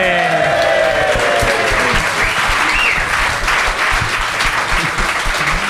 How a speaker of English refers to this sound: give a big round of applause for Gentleman Jim, everybody